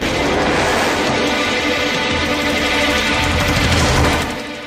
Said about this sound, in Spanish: De inmediato, los artilleros del B-17 desataron todo el poder de fuego de sus ametralladoras contra el Lightning de Rossi, cuya grácil estructura literalmente se estremeció por los impactos